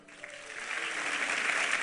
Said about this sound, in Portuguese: Amém, irmão? Vamos aplaudir a Ele.